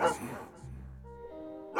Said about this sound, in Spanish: Están ladrando mis perros, pero no se preocupe. Son inofensivos. Ladran de felicidad de tener a un hombre tan importante como usted, como nuestro huésped.